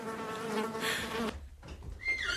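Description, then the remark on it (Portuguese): A shrill, wavering horse whinny lasts about a second, followed by softer breathy snorts and rustling, with no talking. “Gostavas de ser como estes cavalos?”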